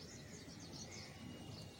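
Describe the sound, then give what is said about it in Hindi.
Faint birds chirp and twitter continuously in the morning against a soft background hiss, with no voices present. “उन पक्षियों की आवाज़ें सुनना जो कि ये बता रही हैं कि सुबह हो चुका उन गिलहरियों की चहचहाहट और उन पक्षियों की चहचहाहट को सुनना जो कि ये कह रही हैं कि सुबह हो चुका है”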